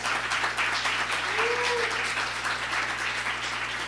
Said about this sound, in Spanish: Así que vamos a dejar al pastor para que ahora nos traiga la palabra. ¿Qué les parece? Dele un aplauso al Cristo que mora en él.